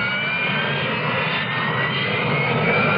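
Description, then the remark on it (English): A steady, loud Harrier jump jet engine roar fills the whole stretch, a dense continuous rush with a faint high whine riding on top and no pauses or voices. “What is a Harrier? It isn't a helicopter, but it could land in your backyard. Harrier. It isn't a conventional jet but it can match the speed of sound.”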